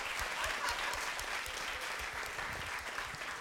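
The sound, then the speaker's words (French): A crowd applauds steadily, a dense wash of many hands clapping at fairly even volume for a few seconds, continuous without any voices on top. “Non, on n'applaudit pas ça.”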